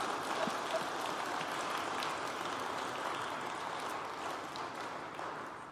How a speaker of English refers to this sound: Did I forget the applause? Hold the applause, and we're still holding it for serving? All right, thank you to all those who've been serving.